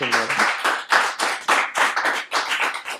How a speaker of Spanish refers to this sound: Qué lindo. Me parece un aplauso a esta historia